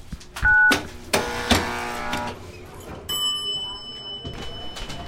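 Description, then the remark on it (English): A harsh electronic buzz holds for about a second, ringing loud, then a few clicks and a steady electronic tone follow: a door entry buzzer releasing a lock to let visitors in, in a small town in New England. “Okay, I'll buzz you in.”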